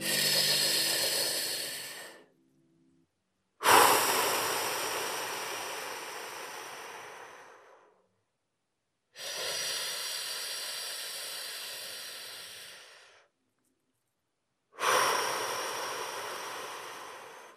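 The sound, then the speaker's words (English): Long, slow, deep breaths drawn in and pushed out, four broad breathy waves separated by short silences, airy like soft rushing wind; a person deliberately breathing to supersaturate their whole system with oxygen. “And we can achieve that by these long, slow inhales and long, slow exhales.”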